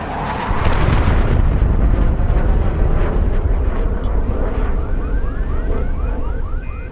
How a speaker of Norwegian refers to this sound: Flyet skyter ei hvit sky ut bak seg. Litt som ringene til en gigantisk sigar oppe på himmelen. Og når sånne ting skjer, så blir det et ganske sånn kraftig sonisk smell da, som påvirker lufttrykket rundt omkring.